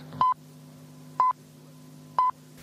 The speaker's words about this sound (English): This is AFN, Munich. At the sound of the last tone, it will be 12 o'clock in Central Europe.